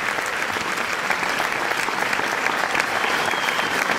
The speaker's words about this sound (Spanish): Pues sí. A otros aplausos ahí.